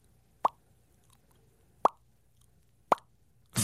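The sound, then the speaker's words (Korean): A voice imitates water droplets with the lips: three crisp, clear plops spaced about a second apart over near silence, with a fourth beginning just as it ends. “입술로 물방울 소리 아주 청량하게 낼 수 있어요.”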